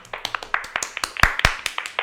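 A short round of clapping from a small group, with quick, fairly steady sharp claps and a couple of louder smacks midway. No voices are heard.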